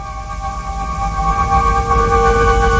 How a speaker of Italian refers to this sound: e intanto noi ascoltiamoci la sigla italiana di Voltron.